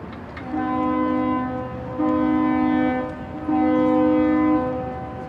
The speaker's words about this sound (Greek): όταν περνούσε το καράβι, σύμφωνα με την παράδοση και έβλεπε την σημαία να κυματίζει πάνω στο πύργο, έπρεπε να πατήσουν να χαιρετήσουν με την κόρνα, δεν ξέρω τι μηχάνημα είχαν να κάνουν αυτόν τον ήχο.